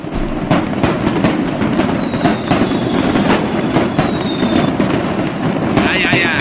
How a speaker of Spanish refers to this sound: de Tultepec, traen sus cohetes, sus, aquí la pirotecnia, fireworks.